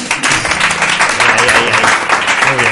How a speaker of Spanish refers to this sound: Hola a todos los asistentes, porque estos eh, estos aplausos no son enlatados. Esta vez son aplausos en serio. vamos a demostrarlo otra vez, por favor